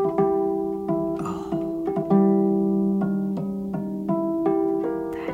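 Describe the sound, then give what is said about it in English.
A harp plays a slow series of ringing, bell-like harmonic notes, each soft attack followed by a sustained shimmering tone, with no talking. “harmonics are not unique to any instrument, but they sound particularly cool on the harp.”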